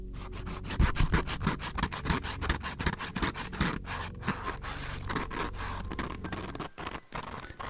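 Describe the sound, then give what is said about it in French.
A scratching sound effect: a steady run of rapid, rhythmic scratching strokes, dry and raspy, continuing for several seconds at an even, moderate loudness with no voices. “vous avez mis un petit peu de grattement, je sais que ça vous fait plaisir.”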